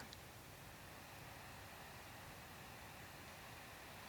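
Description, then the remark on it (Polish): A very soft, steady wind ambience of light air at 1 to 4 km/h, little more than a faint continuous hiss with no gusts or changes, holding evenly throughout. “Lekkie powietrze 1 do 4 km na godzinę 50 głośność. Przycisk. Tak brzmi lekkie powietrze.”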